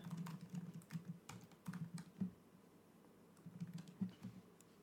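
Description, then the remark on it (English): Quiet, rapid clacking of keys on a computer keyboard, typed in a few short bursts with brief pauses between them and no voices. “He can hear us. I don't need to type.”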